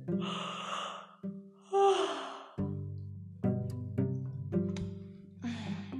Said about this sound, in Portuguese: Pera, mais um bocejo.